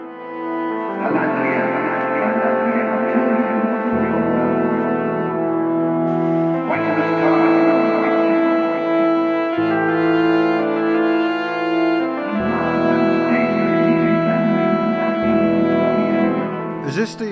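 Old-school, Tolkien-inspired dungeon synth music: slow, sustained synthesizer pads and a deep bass line shifting chords every few seconds, steady and fairly loud throughout with no voices.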